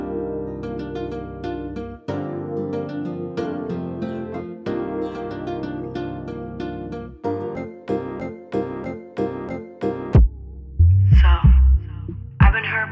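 An R&B song released in 2018 plays at a steady volume: rhythmic, sustained keyboard chords over a pulsing beat, giving way near the end to deep, punchy bass hits. No one speaks over it.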